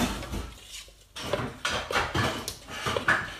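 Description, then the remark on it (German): Scraping and clinking of a utensil stirring pancake batter against a bowl, in irregular bursts with a brief pause near the start, moderately loud with no talking. “Ich muss gerade hier diesen ekelhaften Teig zusammenrühren.”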